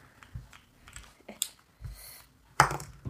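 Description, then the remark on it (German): A six-sided die clatters on a hard surface in a few quick, light clicks and taps, ending with one sharper, louder knock as it settles. No one speaks. “So, dann würfel ein Ruhm und würfel mal ein W6.”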